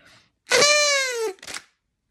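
A single loud toy horn blast, a buzzy harmonic honk held steady for under a second, then dropping off, followed by a short breathy rasp and a faint noise before it.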